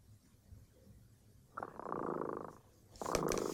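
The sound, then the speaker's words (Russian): A cat named Tremota purrs in two rhythmic, buzzing phases, a steady rumble that rises, pauses briefly, then returns slightly louder. No one speaks over it. “Слышите, кот Тремота запел свою песенку. Это значит, что пора засыпать.”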